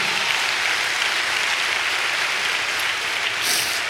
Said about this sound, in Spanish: Dele un aplauso a Dios, amado hermano.